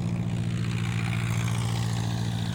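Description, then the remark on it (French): A small propeller plane taking off from the Bahamas on 4 December 1970, its engine droning steadily and loudly, a dense low rhythmic hum with a buzzing pulse that holds constant throughout, no voices present. “Le 4 décembre 1970, un petit avion décolle des Bahamas.”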